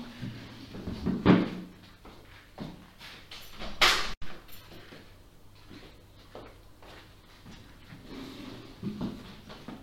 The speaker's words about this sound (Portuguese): tenho que ir abrir ali a porta à minha cadela chacra